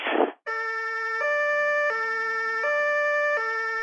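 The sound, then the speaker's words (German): A police car's two-tone siren blares, alternating steadily between a high and a low pitch every second or so, right after a brief rushing burst of noise. “Da haben wir die Polizei.”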